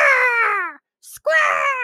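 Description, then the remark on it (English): A person vocally imitates the screech of the Falcon Zord robot: two loud, harmonic, strained cries separated by a brief breathy hiss, the first falling in pitch, the second rising sharply. “And then the Falcon shows up and it's like, scratch!”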